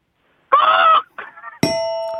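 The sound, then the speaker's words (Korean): A caller on the phone does an impression of a crow with two harsh, nasal caws, the first longer and louder, then a bright bell-like ding rings out and sustains to the end. “다음 까마귀 소리 예, 하겠습니다.”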